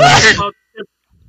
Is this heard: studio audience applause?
no